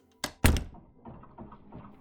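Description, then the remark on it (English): A door swings shut: a quick click, then a heavier, louder thud a moment later, followed by a faint low rumble as the sound settles. No one speaks. “The door closed behind her.”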